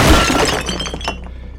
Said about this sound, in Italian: La sua stretta è forte, lottate su, sul pavimento del, dell'ufficio, ma a un certo punto allunghi una mano per cercare qualcosa, per, prendi un, un busto di gesso e glielo rompi forte sulla testa.